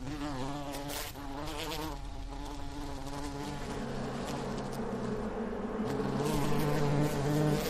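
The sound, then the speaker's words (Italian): A dense, steady drone of many bees buzzing together, continuous for the whole stretch, with shifting wingbeat pitches layered over one another and no voices. “non sono a rischio estinzione come tigri e puma, ma anche le api sono in declino.”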